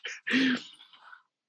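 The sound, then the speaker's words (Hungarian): A single sneeze: a short breathy intake, then a loud, sharp, voiced burst that trails off quickly into quiet. “Egészségedre.”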